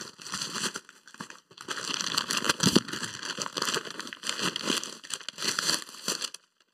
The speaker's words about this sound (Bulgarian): Анбоксинг на пратки в най-великия подкаст.